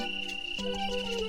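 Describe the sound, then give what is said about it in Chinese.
A cricket on a blade of grass chirps in a steady, continuous high-pitched trill, layered over a sustained lower tonal hum that shifts slightly about halfway through. No one speaks. “小蜗牛朝声音传来的方向爬过去，原来是小蟋蟀正在草叶上唱歌呢。”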